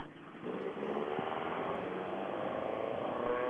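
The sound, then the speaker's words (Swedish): A small rally car, start number 103, idles with a steady, buzzing drone, kept running because its electrics are not charging properly; its rough mid-pitched rumble holds an even level throughout after a slightly quieter first half-second. No one speaks. “Det är en eh, häftig liten bil ni kommer med här.”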